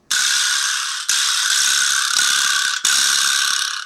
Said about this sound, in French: Et quand tu tapes avec la main sur la boule, ça fait vibrer la petite boîte en bois et ça fait s'entrechoquer les lamelles métalliques.